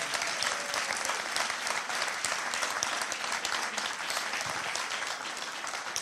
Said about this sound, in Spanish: Alguien que ame al Espíritu Santo y le dé un aplauso fuerte.